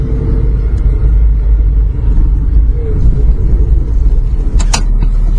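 A car driving to Porto Alegre slows and pulls onto the road shoulder in a mountainous region before Vacaria, its loud, steady low rumble filling the scene, with a brief crunchy burst near the end as the tires leave the pavement.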